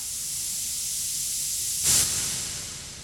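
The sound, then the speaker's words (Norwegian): A burning dynamite fuse, lit by Serboven as he sits on a barrel of dynamite in a bunker in a garden, hisses steadily for about three seconds: a bright, constant sizzle with one brief, sharper flare partway through. No one speaks. “Serboven svelger en håndfull sovetabletter med konjakk og tenner på lunta.”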